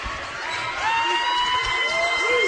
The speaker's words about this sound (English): And the Owl student section gives a standing ovation as Velasco Kicks it to Jenkins at the buzzer.